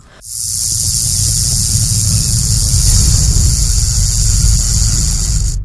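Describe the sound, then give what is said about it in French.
A rattlesnake shakes its tail, its interlocking modified keratin scales knocking together in a loud, steady buzz, a dry continuous hissing whir that starts abruptly and holds at an even intensity for about five seconds before cutting off. “Pour être plus simple, ce sont des écailles modifiées, emboîtées les unes dans les autres, qui produisent un son de sonnette quand elles s'entrechoquent lorsque le serpent agite sa queue.”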